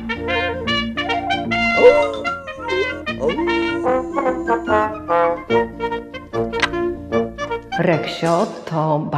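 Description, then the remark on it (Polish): Reksio, the cartoon dog from the Polish Dobranocka bedtime cartoons created by Lechosław Marszałek and first on screen in 1967, barks and yips in a quick run of short, bright, voice-like bursts, some stretched into whiny tones, loud for the whole stretch with no words spoken. “bardzo popularny piesek z Dobranocki, którego wymyślił Lechosław Marszałek.”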